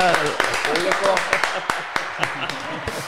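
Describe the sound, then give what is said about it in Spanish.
Scattered hand claps ring out as a short round of applause, with sharp irregular smacks mixed under lively overlapping voices talking and laughing. “La ovación, güey, así del.”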